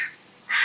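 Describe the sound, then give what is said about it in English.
A crow caws twice in quick succession, harsh and raspy, the second call louder and longer, in the background with no talking. “there's a crow in the background.”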